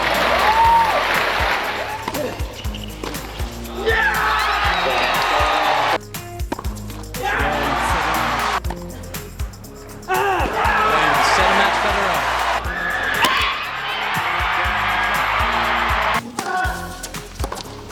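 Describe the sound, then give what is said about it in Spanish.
A large crowd at a tennis match cheers, shouts and applauds loudly for a sustained stretch as Roger Federer wins the US Open, the roar briefly dropping off a few times before surging back, with scattered voices mixed in. “Bueno, pues ustedes escucharán y dirán que es todos esos gritos que se escuchan, pues son los 20 Grand Slams que se ganó”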